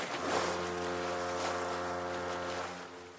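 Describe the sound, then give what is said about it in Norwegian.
A boat engine drones steadily on the water as the boat travels north, a loud, constant low hum with a rushing wash of wind and spray over it, running without a break and no voices. “Og da passer det jo bra å hive oss videre på båten nordover.”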